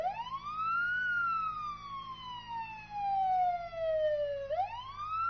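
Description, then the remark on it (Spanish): A Guardia Civil police siren wails loudly as officers pull a car over at night, its pitch climbing, sliding slowly down, then sweeping up again over a low rumbling vehicle hum, with no voices. “Tuve que elegir pronto, ya que a unos kilómetros donde dejé mi primera identidad, la Guardia Civil me estaba dando el alto.”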